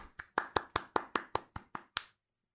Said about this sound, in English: when a single person claps, it sounds sarcastic